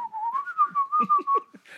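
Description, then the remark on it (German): A person whistles a steady, slightly wavering tone for a couple of seconds while fiddling with an imaginary belt bag, clear, with soft rustling and shuffling noises underneath. “Genau, wir, wir, pfei wir pfeifen und spielen an unseren und, imaginären Bauchtaschen.”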